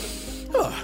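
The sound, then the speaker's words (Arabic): A single short, loud braying burst from a human voice imitating a donkey, Shalhoub, Juha's pet donkey, braying as it does when it is hungry, rising suddenly out of quiet background and fading quickly, with no talking. “ما بال شلهوب ينهق هكذا كالعادة هذا صوت نهيقه عندما يشعر بالجوع”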